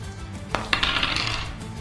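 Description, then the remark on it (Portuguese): Dice rolled in a tabletop role-playing game, four more dice for a strength roll to help push a car, clatter onto a hard table, a sharp first knock followed by a second impact and a brief bright rattle as they tumble and settle. “Vou aproveitar a minha ação, vou gastar em ajudando a empurrar, mais quatro dados.”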